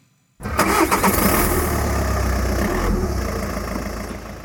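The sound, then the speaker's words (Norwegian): A car engine cranks and catches after a brief silence, then settles into a steady, loud idle with a low rumble for several seconds. It is a private car that a newspaper carrier uses for his delivery route in Ålesund. “Hver dag og i all slags vær legger han ut på avisrunden i Ålesund i sin egen bil.”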